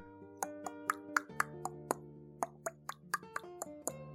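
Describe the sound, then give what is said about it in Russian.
A voice imitates the rapid, throaty clicking of a zombie clicker, mimicking how a pop song's chorus arrangement sounds, with about a dozen sharp clicks in an uneven rhythm over a steady, low sustained musical backing, fairly loud. “… в песне такая дерзкая, потому что ее крышуют щелкуны”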